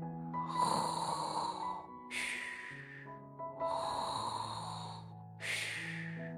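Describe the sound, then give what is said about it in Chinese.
A cat snoring loudly through two full breaths, each a rumbling, buzzy inhale followed by a softer hissing exhale, in a slow, steady rhythm with no talking. “最有趣的是猫女士，她一合眼就打起了呼噜来。”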